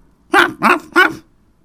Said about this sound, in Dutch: Het kwam bij hem op dat het misschien zou helpen als hij nog een keer blafte.